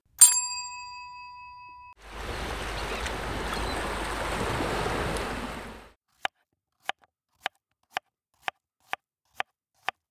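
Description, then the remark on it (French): A single bright ding from a counter bell used for classroom management rings out and fades, then a steady rush of ocean waves fills several seconds, followed by a run of evenly spaced sharp ticks. “Alors le premier, c'est euh, un bruit de sonnette de comptoir.”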